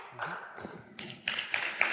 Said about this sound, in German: Dürfen gerne klatschen. Ja, Sie klatschen jetzt für Heinz Bude, weil ich referiere das, was der sagt.